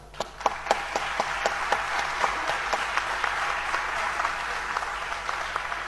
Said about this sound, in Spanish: que se encuentra hoy en la sala, le vamos a dar un aplauso.